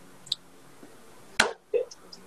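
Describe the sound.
A voice imitates stepping off a helicopter into a dirty, muddy puddle of water: one sharp, wet splashing burst, then a short low gurgle, fairly loud, with a few faint mouth clicks around it.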